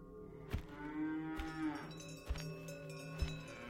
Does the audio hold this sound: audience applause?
no